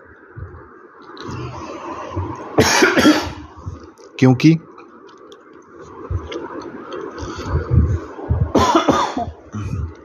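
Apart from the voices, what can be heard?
coughing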